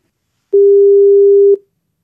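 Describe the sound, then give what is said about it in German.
A single telephone ringing tone sounds once, a steady mid-pitched beep lasting about a second, then silence. No one speaks. “Weil dann würde ich sagen, ruf mir jetzt Dominik Mies mit einer ganz anderen Frage an.”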